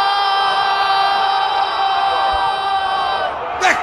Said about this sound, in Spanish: el relator al que le sale voz de mina cuando grita gol.